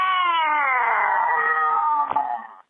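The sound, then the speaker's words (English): A person imitates a crow's caw with one long, loud, drawn-out call that slides slightly downward in pitch, heard alone before it cuts off. “Go ahead and give a good old hearty caca.”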